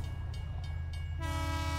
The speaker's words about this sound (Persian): بوغ قطار به صدا درآمد و به راه افتادم. آنقدر سریع حرکت میکرد که منظره ای از پس پنجره ها پیدا نبود